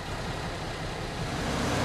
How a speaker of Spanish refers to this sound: Suelen ir muy rápido, pero lo más sorprendente son estos road trains. Son vehículos que transportan varios remolques. En esta área de servicio encontré este con cuatro cubas de combustible.